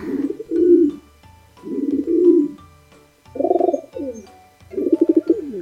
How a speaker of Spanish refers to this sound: Paloma paloma.